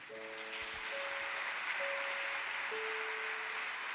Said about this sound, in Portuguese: Pode aplaudir o Senhor.